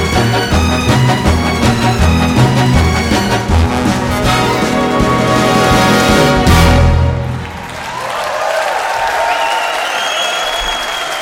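A Dutch orchestra that combines a jazz big band with a symphony orchestra plays a full, loud final passage with brass and strings in a 2012 live recording, ending on a held chord around seven seconds, then steady audience applause fills the rest.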